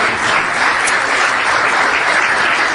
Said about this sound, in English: Thank you guys so much for that, and I think uh, we'll give yourselves a round of applause.